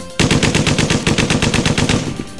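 A 1930s-style drum-fed submachine gun, the kind much used by gangs, fires one sustained automatic burst: roughly fifteen sharp, loud cracks in quick, even succession over about two seconds, with no voices.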